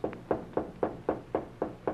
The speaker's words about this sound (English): But the calm was ruffled and the smile was missing late one afternoon when he knocked on the door to the president